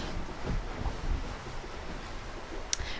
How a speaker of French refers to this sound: navigation, grincement des poulies, claquement de la voile, bruit des vagues aussi contre la coque.